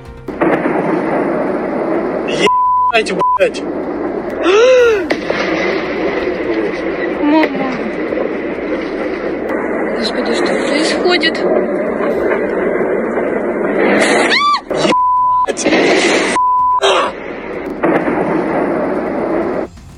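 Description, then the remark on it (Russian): Heavy, booming explosions at a weapons depot in the Sukharnaya Balka area of Sevastopol during an air attack roll and rumble continuously, loud enough to blow out many windows, with a person exclaiming in shock over them and a few short bleep tones cutting in. “Очевидцы же говорят, говорят, что взрывы были очень громкие, у многих выбило окна.”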